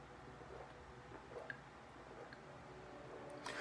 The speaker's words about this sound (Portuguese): Deixa eu beber uma água aqui que eu estou bebendo por causa de sede.